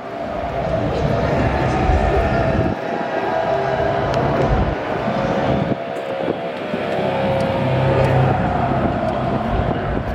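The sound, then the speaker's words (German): A car engine revs loudly and continuously, its pitch rising and falling as it strains while stuck in a thick mud pit in the middle of a yard where several cars have got stuck, with indistinct voices and outdoor crowd noise mixed in. “So Leute, gehen wir erstmal in die erste Schlammschacht. Direkt hier in Mitte unseres Hofes, wo einige Autos schon stehen geblieben sind.”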